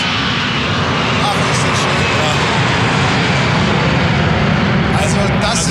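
An Edelweiss passenger jet, flight EW 8137, roars loudly overhead, its dense, rushing engine noise filling the whole stretch at a steady, overwhelming level, continuous.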